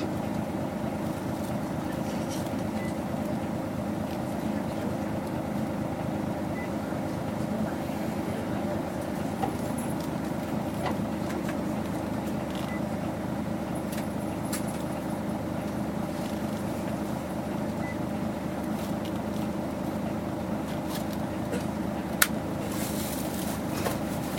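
A Toei (Tokyo Metropolitan) city bus engine drones steadily throughout, a constant low rumble with a faint harmonic hum, heard from inside the bus with occasional small clicks and knocks.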